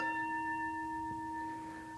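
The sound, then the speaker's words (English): A struck bell rings out with a steady, pure tone and bright overtones, sustaining evenly for about two seconds and fading only slightly, with no voices present. “If I strike the bell, it sounds pleasant.”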